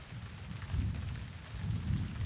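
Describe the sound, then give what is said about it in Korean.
A low, rolling rumble of distant thunder swells twice beneath a steady hiss of rain, quiet and far off, with no voices. “하지만 천둥은 어떤 먼 폭풍 우의 찌꺼기였거나 아니면 다른 경로를 택한 것 같았다.”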